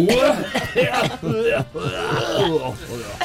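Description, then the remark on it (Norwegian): A voice mimics a cat hacking up a hairball, making a run of strained, rhythmic gagging and coughing sounds, fairly loud, with no actual words. “Du hoster opp. Hårballer.”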